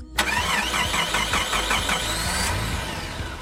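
A car engine cranks with a rapid, rhythmic starter whir for about two seconds, then catches and settles into a steady, loud running rumble. No voices.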